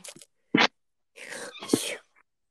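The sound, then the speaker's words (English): A single sneeze caused by a cat allergy bursts out after a brief sharp intake, its noisy blast trailing off over about a second, with no talking around it. “allergic just to a cats, so I'm sneezing at you.”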